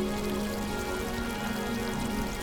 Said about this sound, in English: And you hear the sounds of the waves. And just taking a moment to listen to those waves and any other sounds you might hear, perhaps birds, the breeze, waves.